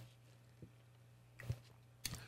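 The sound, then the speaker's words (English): A quick sip from a drink, with a couple of soft mouth and swallowing noises over a low steady hum, quiet and brief with no talking. “Let me take a quick little sip here.”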